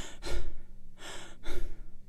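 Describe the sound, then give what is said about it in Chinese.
A voice imitates the heavy, labored panting of an overweight person with a big belly while walking: four broad, breathy huffs in a steady rhythm, each a rough burst of air with short gaps between, fairly loud and with no speech. “所以，呃，你会经常在生活中发现，呃，一些比较胖的人、肚子比较大的人，他走到喘气会这样，”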